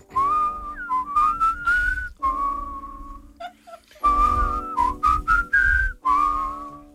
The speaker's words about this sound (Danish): Men øh, hvor meget vi skal fløjte med, det må vi lige vurdere undervejs.